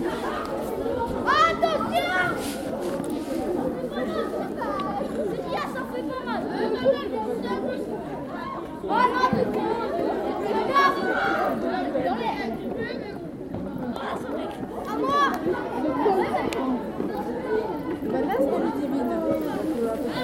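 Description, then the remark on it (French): A busy school playground at recess, with many children chattering and calling out at once in a steady, lively hubbub that fills the whole space without a single voice standing out. “C'était dans la cour de récréation.”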